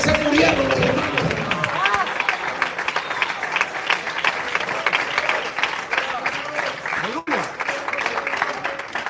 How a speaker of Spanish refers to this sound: Gloria a Dios por esos dos pelones que aplauden.